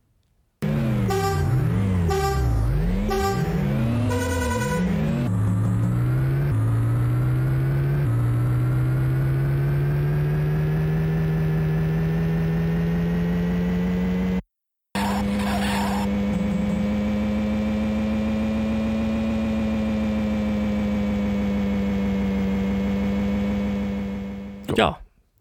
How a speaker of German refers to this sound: Äh, daher spielen wir jetzt nur noch ein, den, ja, Start wenn man ein Rennen startet, äh, den Sound und ein bisschen Soundeffekte hat vom Amiga.